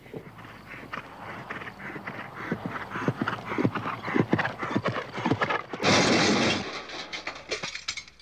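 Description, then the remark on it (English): A horse's hooves clip-clop in a steady, brisk rhythm during horseback riding, then a loud, harsh whinny breaks in near the end before the hoofbeats resume faintly. “And horseback riding.”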